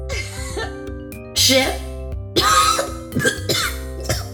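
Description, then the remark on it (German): A woman chokes on a joint she is smoking, with several harsh, sputtering coughs bursting out in quick succession, fairly loud, with brief gasps between them over a faint steady background hum. “Sie verschluckt sich, hustet und reicht mir den Joint, bevor sie keuchend fortfährt.”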